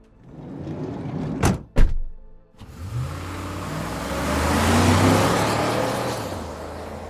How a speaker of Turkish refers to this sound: Kaçan bir otomobilin ve motosikletin gürültüsü duyuldu.